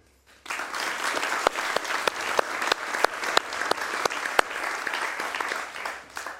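An audience at the 17th Medientreff claps steadily in a sustained round of applause welcoming guest Dr. Michael Häupl, with a few sharp, louder individual claps standing out, starting abruptly and continuing evenly without talk.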